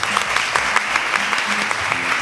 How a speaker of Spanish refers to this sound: Así que nada, un aplauso.